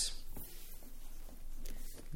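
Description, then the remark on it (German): A pen scratches across paper in short, uneven strokes, fairly quiet, with brief pauses between bursts of scribbling and no talking. “Der Kuli schreibt ja gar nicht.”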